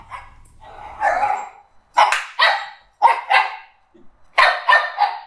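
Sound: dog barking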